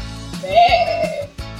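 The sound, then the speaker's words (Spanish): A single drawn-out sheep bleat with a wavering, quavering tone, lasting under a second and heard clearly on its own against a faint background. “Y la otra oveja lana.”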